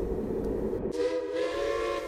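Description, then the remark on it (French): A train in France, on a trip to Chantilly in the Oise, rumbles steadily along the rails, a loud low roar that shifts partway through into a brighter, ringing tone with a sustained whistle-like hum, no voices. “écumant les kilomètres à bord de trains confinés, déjà, pour pousser le bouchon jusqu'à faire un repérage à Chantilly.”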